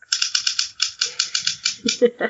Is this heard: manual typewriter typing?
yes